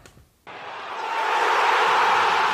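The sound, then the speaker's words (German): A recorded crowd cheer sound effect, played to congratulate the listener of the week, bursts in abruptly after a short quiet moment, a dense, steady roar of many voices that swells slightly louder and holds at full strength to the end. “Hier ist dein Jubel.”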